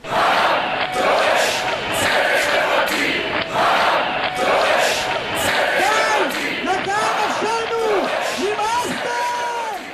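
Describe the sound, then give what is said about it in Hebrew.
A loud crowd at the 2011 protest over the price of cottage cheese chants in unison, many voices shouting rhythmic slogans in repeated bursts, with rising and falling yells toward the end over a constant roar. “כלומר, הממשלה הסירה את הפיקוח מהקוטג' בתחילת שנות האלפיים, ואחרי זה תנובה פשוט העלתה את מחיר הקוטג' והגענו למחאה של 2011.”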